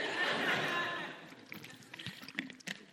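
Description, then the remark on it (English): Someone takes a drink of water: a brief rushing, liquid wash, then a few soft gulps and small mouth clicks, with no talking. “I'm going to take another drink of water, I think.”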